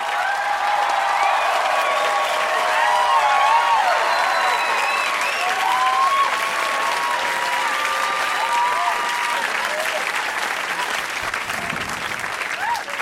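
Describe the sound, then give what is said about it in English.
Loud, sustained applause from a large audience welcoming stand-up comedian Margaret Cho, with scattered whoops and cheers rising over the dense clapping throughout. “Let's hear it for the gorgeous Margaret Cho!”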